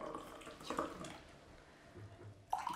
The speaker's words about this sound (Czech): Dělám nalejvací pauzu.